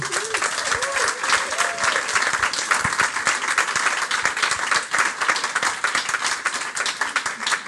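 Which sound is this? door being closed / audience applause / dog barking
audience applause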